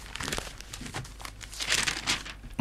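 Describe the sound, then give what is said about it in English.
Newspaper pages rustle and crinkle as they are turned to page three, a run of dry papery bursts swelling and fading over a few seconds with no voices. “Let's do these ones. Page three of the sun.”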